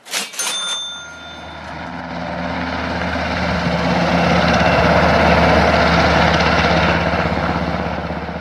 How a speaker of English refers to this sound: Just being in the vicinity of a helicopter when it takes off is impressive enough but when it's amplified and enriched with strings, which as Stockhausen wrote, have to blend so well with the timbres and rhythms of the rotor blades